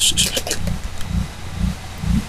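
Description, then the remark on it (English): A portable generator, brought to make power out in the woods, drones low and steady outdoors, its engine hum pulsing in a regular rhythm, with brief high chirps from crickets near the start. “Actually, okay. you can hear the generator.”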